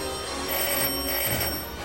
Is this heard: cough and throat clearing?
no